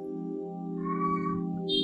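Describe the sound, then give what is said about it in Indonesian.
A cat lets out a drawn-out meow with a pitch that rises and falls, clear over a steady background hum, with no one talking. “Bentar, ada kucing.”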